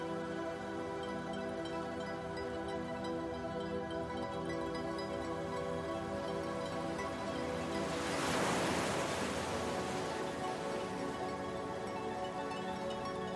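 Ocean waves glowing blue with bioluminescent plankton roll in steadily with a constant wash of surf, and one larger wave crashes more loudly near the middle before the hiss settles back. No voices.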